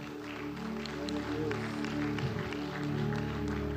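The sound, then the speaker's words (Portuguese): A crowd claps steadily for several seconds, a dense, continuous patter of applause over a sustained low musical drone, with no clear voices standing out. “Esses espirituais estão aqui? Aplaude ele, aplaude.”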